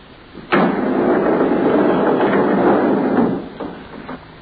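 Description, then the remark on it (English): A heavy metal morgue slab carrying a sheet-wrapped body is pushed unhurriedly into compartment 12 with a sharp start and a long grinding slide, followed by a couple of dull knocks as the compartment door shuts. “and unhurriedly he pushed the sliding slab into the compartment and closed the door marked 12.”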